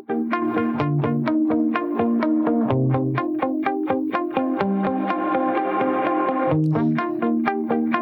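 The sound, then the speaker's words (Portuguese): A loud, steady stretch of a 2012 pop song played on air, with a driving beat and heavily processed, distorted synth or guitar chords, playing continuously with no one talking over it. “Então, eu preparei uma música aqui de 2012 para fazer essa relação aí, olha só.”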